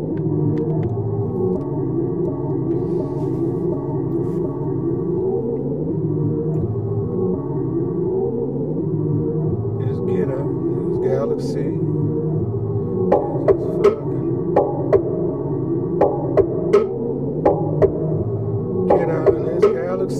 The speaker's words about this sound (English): Listen to this white beat I made.